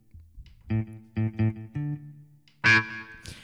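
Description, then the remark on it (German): A clean electric guitar with a little effect and a built-in echo plays a few short, evenly spaced notes, then a brighter, louder strum, with a faint echo trailing the notes. No voices are heard. “Hier ist auch gleich ein Echo drin.”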